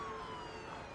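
An emergency vehicle siren wails loudly and steadily, its tone gliding slightly downward over a brief moment, set against a dense, noisy background of traffic and commotion, amid chaos with police cars and ambulances all around.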